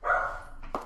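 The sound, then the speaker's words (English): A dog lets out a drawn-out, howling whine, then a quick second yelp, loud, with no one speaking. “Oh, I I apologize for my dog howling.”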